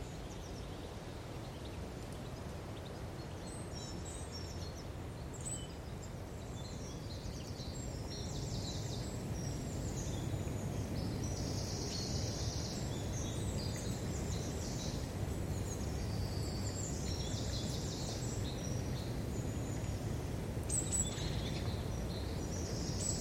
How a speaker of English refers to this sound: Over the last few weeks, I've been enjoying the steady crescendo of birdsong towards spring. So I've come to Norfolk, one of the most renowned places to birdwatch in the UK, to learn more about the birds that live here.